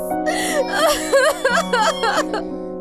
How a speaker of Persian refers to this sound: نه عزیزم گریه نکن